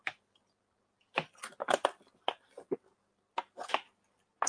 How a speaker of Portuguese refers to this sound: Vou tomar um, um golinho de água aqui, pessoal.